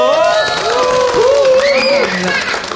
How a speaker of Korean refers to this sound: 큰 박수와 함성 부탁드릴게요.